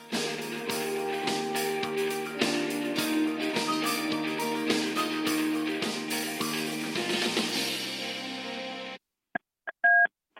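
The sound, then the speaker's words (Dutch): Busy rhythmic music plays for several seconds, then cuts to silence, followed by a few short, clear telephone dialing tones beeping from a phone booth in a prison in Spain. “neemt ons in eh, de documentaire mee naar een telefooncel in een gevangenis in het verre Spanje.”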